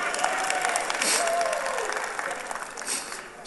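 An audience bursts into sustained hand clapping at the speaker's call after singing a song, a dense wash of many hands clapping at once, staying loud and steady throughout with faint voices mixed in.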